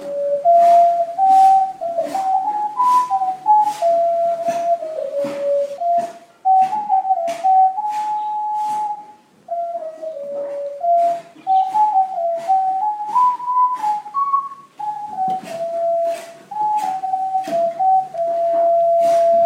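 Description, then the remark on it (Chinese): A girl in a shop in Wuzhen, China, plays a pop song on an ocarina, a flowing melody in a pure, hollow mid-range tone, stepping up and down steadily, while sharp rhythmic knocks from renovation work outside tap along throughout. “外面有人在搞装修，屋里有人在吹着陶笛。”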